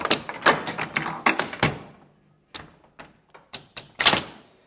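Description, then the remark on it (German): A wooden warp knitting loom, its needle moving back and forth joining the threads into stitches, clatters with a quick run of sharp, rhythmic clacks, then falls quiet briefly before a few sparser knocks and one louder thunk, with no voices. “Maschen erkenne ich auf dem Stuhl und eine Nadel, die sich hin und her bewegt und die Fäden verbindet.”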